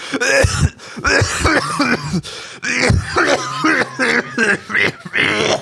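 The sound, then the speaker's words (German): A loud run of coughs and throat clearing, repeated in uneven bursts over several seconds, with some voiced, chuckle-like sounds mixed in. “Ja, seitdem, seitdem muss ich immer ein bisschen husten.”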